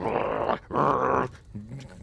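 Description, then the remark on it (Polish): At night, a dog named Rzeźnik growls at a cat in two loud, rough bursts of about half a second each, separated by a brief pause, followed by a quieter, lower rumbling growl that trails off. “Po prostu nienawidzi tego kota, który właśnie zeżarł coś, co mógłby zjeść rzeźnik”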